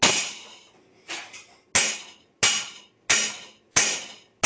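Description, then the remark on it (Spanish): A blunt pencil with no point taps out a steady pulse beat, about seven sharp, bright clicks at an even pace, each one fading quickly, with no voices. “Si hace falta tener una, un lápiz, una pintura que no nos sirva, que no tenga punta, porque si no nos va a molestar a la hora de dar golpes, hacemos esto.”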